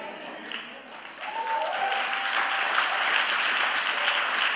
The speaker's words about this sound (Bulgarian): О, Господи, благослови тия хора, които ръкопляскат с ускорение.